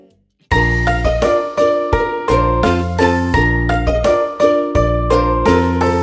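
A bright, bouncy instrumental intro to a children's song, with bell-like chiming tones over a steady bass pulse, played loud after a brief moment of quiet.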